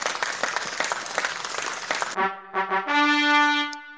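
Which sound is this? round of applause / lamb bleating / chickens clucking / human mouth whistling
round of applause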